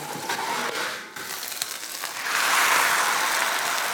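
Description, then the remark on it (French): Steady crackling sizzle of ribs cooking with a sticky molasses glaze that is caramelizing, a dense hiss that briefly dips then swells louder and brighter for the last stretch, with no voices. “Euh, tu entends déjà le bruit et si tu sens le caramel, c'est les mélasses qui ont caramélisé.”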